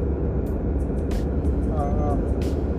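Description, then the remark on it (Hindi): Steady low rumble of engine and road noise inside a car driving from Muzaffarpur to Hajipur, India, with a few brief clatters and a faint wavering whine rising over the drone. “अभी मैं गाड़ी में हूँ”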